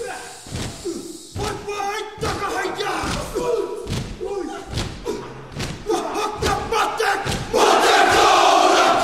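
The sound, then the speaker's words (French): The New Zealand All Blacks rugby team, a group of men, shouts a rhythmic haka war chant in unison, punctuated by loud thumps of stamping and slapping, building to a roaring crowd at the end. “La première, c'est son équipe de rugby, les All Blacks, avec leur AK.”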